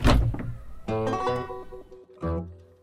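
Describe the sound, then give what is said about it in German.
A plastic garbage bin lid is lifted open to throw away rubbish: a hollow thunk, then a creaking, grinding sweep with harmonic squeaks, and a second short scraping creak at the end. No voices. “Einfach ist das. Deckel auf.”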